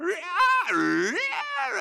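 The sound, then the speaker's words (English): A person vocally imitates the screaming of llamas from a llama farm next door at dusk, producing a wavering, rising and falling wail that dips into a low groan, then climbs again, loud, for about two seconds. “And then one night, it was the screaming of the llamas.”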